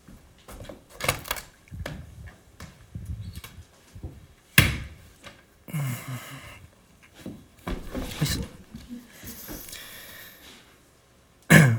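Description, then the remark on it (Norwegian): A door creaks and is pushed open a little again, with several knocks and thuds along the way and a sharp bang near the middle, plus rustling between the louder bursts. “Um, nå skal jeg åpne den døren her litt igjen.”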